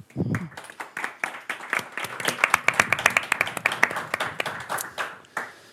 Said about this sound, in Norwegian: Liten applaus.